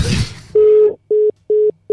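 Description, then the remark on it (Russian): A steady electronic telephone tone sounds once long, then pulses in short even beeps with brief gaps, the ringback of a call connecting; a brief burst of noise precedes it. “У нас есть телефонный звонок.”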